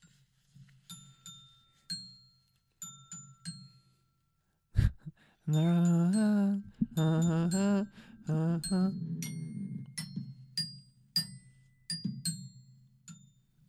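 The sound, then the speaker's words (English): A xylophone plays the slow, gentle melody of Rockabye Baby in bright struck notes, each ringing briefly. Partway through, a person laughs loudly over the tune before the notes carry on. “That's called a xylophone.”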